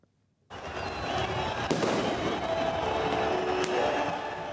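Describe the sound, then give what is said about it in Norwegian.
A dense, roaring crowd of demonstrators celebrates on Tahrir Square in Cairo in the evening, cheering news of Mubarak's condition and what they see as the Muslim Brotherhood presidential candidate's win, while fireworks crack overhead, with two sharp bangs standing out and faint whistles threading through the steady noise after a brief silent start. “Meldingene om Mubaraks tilstand vakte jubel på Tahir-plassen i Kairo i går kveld.”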